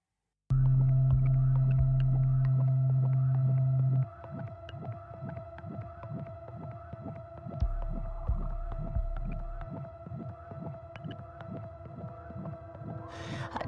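A pop song intro opens with a loud sustained synth chord, then settles into a steady, throbbing low bass pulse under held tones; instrumental only, with no singing yet.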